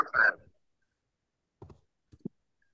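A computer mouse clicks a few times up close: a short, busier burst at the start, then a pause before two or three quick, sharp clicks in quiet.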